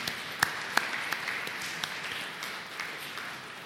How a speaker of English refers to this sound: Would you give each of those groups of people a round of applause and appreciation this morning?